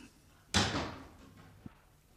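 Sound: door closing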